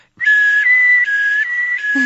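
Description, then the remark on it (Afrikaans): A voice imitates an ambulance siren, a loud whistled tone alternating between two pitches in a steady hi-lo pattern for about two seconds, with no words spoken. “En dan het ek stories geskryf en goeters met sound effects en goeters in soos 'n ambulans”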